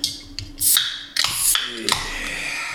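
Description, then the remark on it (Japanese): Cans of Ichiban Shibori beer snap open one after another for a toast, each with a sharp metallic click and a short fizzing hiss, fairly loud, with no talking. “はい、そうですね、うん、まずあのちょいこれ乾杯しましょう乾杯しましょう、うん、あの買ってきていただいた、えー、えー、ビールを。”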